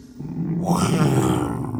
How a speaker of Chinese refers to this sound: 嗯，声音好像是从后面的山洞传来的。听这个声音，这只老虎应该很凶、很大只。